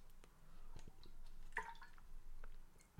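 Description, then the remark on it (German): Someone takes a quiet sip of water, with faint wet slurping and small liquid clicks, then a soft gulp. No one speaks. “Ich brauche wieder einen Schluck Wasser, Mann.”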